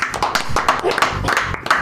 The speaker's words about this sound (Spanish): Hay que terminar aplaudiendo. A todos los programas tenemos que terminar aplaudiendo algo.